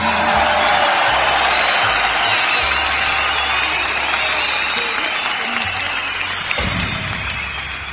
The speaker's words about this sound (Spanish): Fuerte el aplauso, público conocedor.